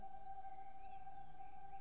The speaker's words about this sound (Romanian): Păsările parcă-ți spun, trăiește din inimă.